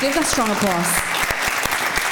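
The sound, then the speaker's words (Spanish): A church audience breaks into dense, sustained applause during a sermon, with a few sharper claps standing out. A voice is heard over the clapping at the start before the applause carries on alone. “Las coronas que Dios ha diseñado, Dale un fuerte aplauso.”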